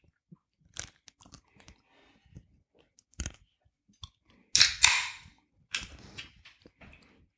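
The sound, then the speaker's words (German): Crunching and chewing of a Snickers caramel ice cream bar, with sharp bites and irregular crackly crunches, including one louder, longer crunch burst partway through, alone with no talking. “Bist du kein geräuschvoller äh, Eisesser?”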